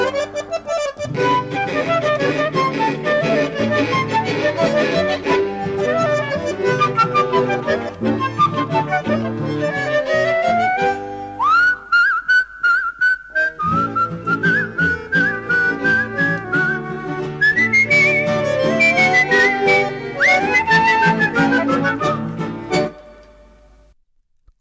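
An instrumental tango passage from a small ensemble, with a rhythmic accompaniment under a high, sustained, whistle-like melody line. It plays loudly and steadily, then ends with a final chord that fades out.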